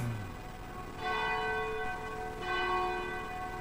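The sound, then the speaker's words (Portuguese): A large bell of the Cathedral of Nossa Senhora de Aparecida tolls twice, each strike ringing out with a long, shimmering harmonic hum that lingers and fades, with no voices. “Mais uma vez a gente vem quando bate o sino da Catedral de Nossa Senhora de Aparecida.”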